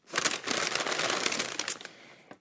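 A bag of several hundred acorns, picked from a small oak tree in a garden, is rustled and handled, giving a dense, crinkly crackle that runs steadily for about two seconds, then stops with a final small rustle. No one speaks.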